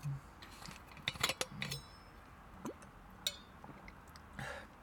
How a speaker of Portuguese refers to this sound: E tive que dar aqui chave no carro porque percebi que estava ligado.